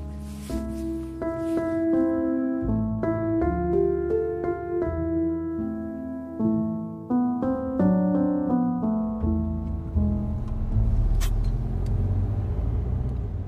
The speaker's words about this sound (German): Wir sitzen wieder im Auto auf dem Weg zu unserem nächsten Ziel. Diesmal genau in entgegengesetzter Richtung, im Norden.